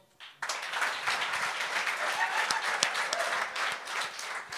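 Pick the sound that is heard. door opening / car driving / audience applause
audience applause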